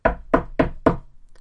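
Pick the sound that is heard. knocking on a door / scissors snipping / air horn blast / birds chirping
knocking on a door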